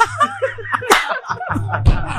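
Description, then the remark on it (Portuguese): A sharp slap by an angry man to another man's face cracks out once mid-clip, with a second smack-like hit shortly after, surrounded by snickering laughter and low background hum. “ele fica bravo dá um tapa no cara.”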